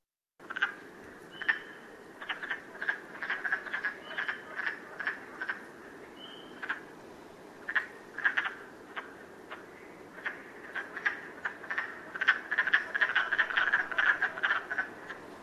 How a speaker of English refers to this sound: frogs are weird. it's so cool though, right?